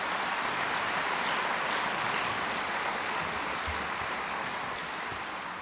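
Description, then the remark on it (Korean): An audience at a Hangul Day commemoration breaks into sustained applause, many hands clapping in a dense, steady wash of noise that holds for several seconds and eases slightly toward the end. No one speaks over it. “깊은 감사와 축하의 박수를 보냅니다. 박수는 이때 치시는 겁니”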